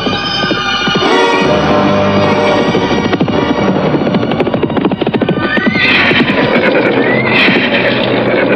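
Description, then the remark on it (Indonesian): Loud, busy clatter of horse hooves runs throughout, with horses neighing and whinnying, a shrill whinny rising near the end. No one speaks. “Saya minta mulai dari sini, tak ada seorang pun yang mengendarai kuda.”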